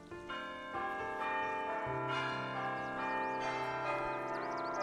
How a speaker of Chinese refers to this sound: 这时候，房子里响起了午夜的钟声。